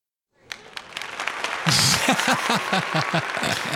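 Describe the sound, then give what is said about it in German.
Applause rises from silence into a steady, dense patter of clapping, soon joined by voices cheering over it and continuing loudly to the end. “Yeah als mit einem kleinen yeah. Applaus.”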